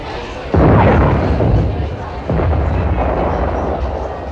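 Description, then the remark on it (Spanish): Two loud artillery blasts go off about two seconds apart, each a sudden boom followed by a long, rumbling roar that keeps the air churning between and after them. “Pues yo me he hecho una gallina al bolsillo y entre disparo y disparo, mordijo que te pego.”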